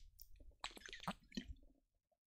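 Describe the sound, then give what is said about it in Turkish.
Quiet sipping of water by a thirsty speaker: a few short, wet slurps and swallows packed together over about a second, then near silence. “Arkadaşlar Susadım bir dakika bir yudum alayım”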